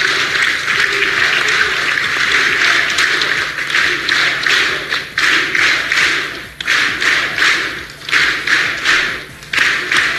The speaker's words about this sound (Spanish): Lo que escuchan, eh, pues son los diputados que aplauden y se escucha que dicen sí se pudo. Sí se pudo.